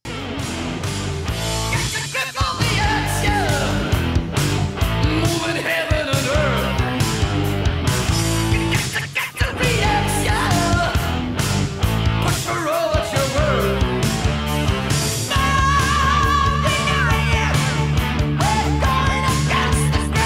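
A loud, dense hard rock song plays continuously, with driving distorted guitars, pounding drums and heavy bass, and a wailing high vocal line soaring over the steady, energetic rhythm.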